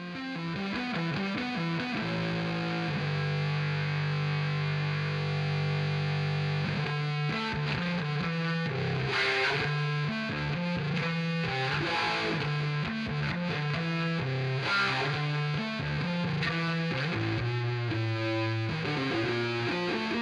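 A heavily distorted electric bass guitar plays a solo line alone, loud, with effects colouring a gritty, sustained tone over a steady pulse of notes.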